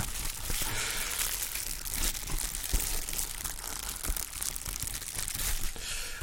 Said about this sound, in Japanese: あとはさっきのこのプチプチすごい臨場感。